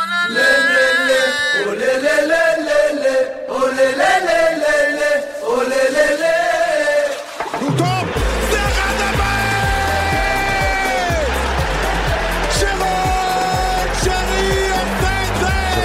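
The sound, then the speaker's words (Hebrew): Loud intro theme music plays throughout, opening with a sustained melodic passage before shifting about halfway into a fuller, bass-heavy arrangement with a steady beat. No one speaks over it. “אז פתיח, יצאנו לדרך.”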